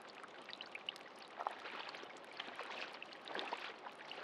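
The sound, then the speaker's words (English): Rainwater pours and streams steadily for the whole stretch, a dense, even wash of splashing and trickling with small scattered drips, fairly soft and without any voices. “Hopefully it stops raining soon. All this water needs to soak into the ground.”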